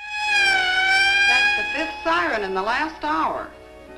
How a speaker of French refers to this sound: puis on entend des sirènes, mettons. Euh, Où sont passés les tuyaux? les pompiers la grande échelle! la, la, fille a dit que ça fait une coupe de sirènes qu'ils entendent de, de, de, dans l'après-midi.